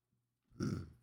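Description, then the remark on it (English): A single short, throaty burp, rising abruptly out of near silence and trailing off after about half a second. “Burped. So gross.”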